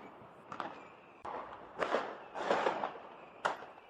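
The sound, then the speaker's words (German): Scattered New Year's Eve firework bangs from rockets and firecrackers, a few sharp pops followed by rushing, fizzing crackles against a low background hiss. “Die Leute lassen Raketen steigen schießen Böller in die Luft und machen ganz viel Lärm.”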